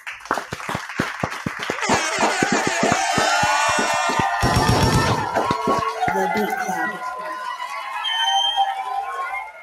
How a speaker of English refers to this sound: We have our special guest on the show right now, man. Can we clap it up one time, man?